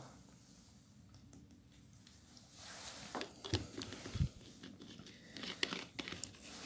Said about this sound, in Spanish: Eh, bueno, para que me tomo el agua.